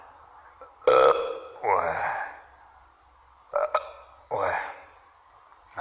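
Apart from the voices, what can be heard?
burping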